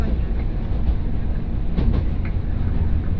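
A Mizushima Rinkai Railway train runs steadily along the rails between Mitsubishi Jikō-mae and Kurashiki-shi, with a dense, low rumble and faint rhythmic clicks of wheels over joints, continuous and fairly loud throughout.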